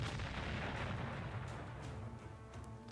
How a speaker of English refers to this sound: The big gun explodes.